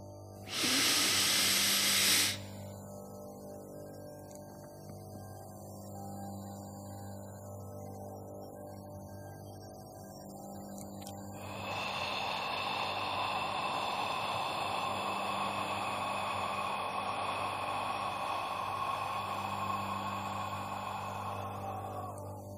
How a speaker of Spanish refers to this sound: Repito, una inhalación por la nariz rápida y profunda, una retención de al menos 10 segundos y una exhalación lenta y profunda por la boca. Sería más o menos así.